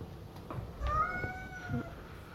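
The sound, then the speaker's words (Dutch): A cat lets out one drawn-out meow that rises slightly and then trails off, moderately loud against a quiet background with a few soft thumps, as it is being given dry kibble. “hey, poes. Ik weet helemaal niet hoe jij heet.”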